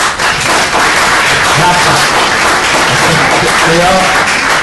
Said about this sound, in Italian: Adesso applaudirete e ascolterete l'autore, uno dei più importanti fumettisti emessi negli ultimi vent'anni, Roberto Recchioni